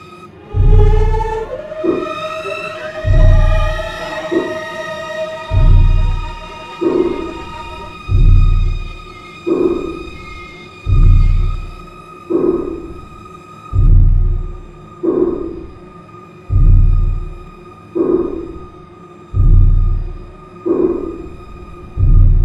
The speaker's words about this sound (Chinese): 他当时也是用了那种很呃一些先锋派的弦乐，然后来写这种很一听就觉得很失真的这种感觉，这种这种音乐出来的。